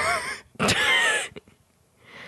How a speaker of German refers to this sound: Was ist das für eine Katze? Meine Katzen können so einen Krach machen.